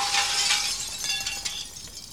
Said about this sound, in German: Und mein Bruder trifft bei uns die Scheibe vom Küchenfenster und es macht Klirr.